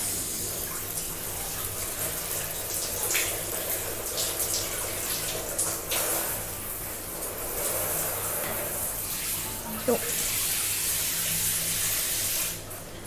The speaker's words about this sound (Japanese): まずシャワーします